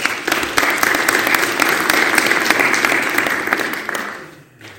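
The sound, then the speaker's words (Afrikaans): A room full of people applauding together, a dense, steady wash of claps that holds for several seconds before tapering off near the end. “mag die Here julle seën baie geluk kom ons gee vir hulle hande klap”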